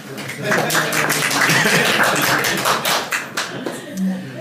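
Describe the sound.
An audience claps steadily for several seconds, a dense, loud patter of many hands with some voices mixed in, thinning slightly toward the end.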